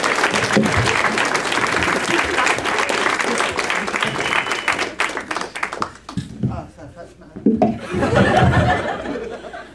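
A crowd applauds with dense, continuous clapping for about six seconds, then it thins into scattered claps and laughter before a brief renewed swell of clapping and cheering.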